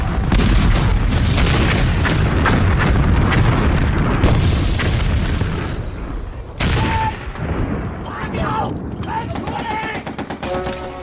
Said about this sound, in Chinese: 立刻开炮！ 立刻开炮！ 集中所有炮火， 炮火！ 把炮弹统统给我打光！